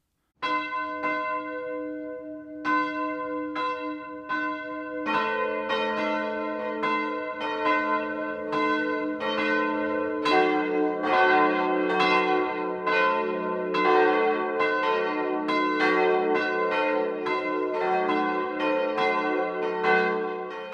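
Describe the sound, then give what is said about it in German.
Church bells ring the 12 o'clock noon peal in Staudach, part of the market town of Massing in the Rottal-Inn district of Lower Bavaria, Germany; several bells layer into a dense, continuous clangor that builds after a sparser opening, loud and resonant with no voices. “Das Mittagsläuten kommt heute aus dem niederbayerischen Staudach, das zum Markt Massing gehört.”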